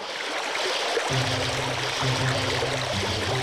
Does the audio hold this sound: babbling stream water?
yes